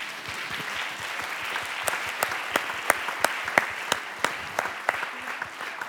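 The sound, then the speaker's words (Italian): An audience claps to thank the people who prepared the buffet at an event, a dense wash of many hands with sharper individual claps standing out in a loose rhythm, holding a fairly even level for several seconds. “E quindi vorrei ringraziarli perché sono già al quarto buffet, magari con un applauso, grazie.”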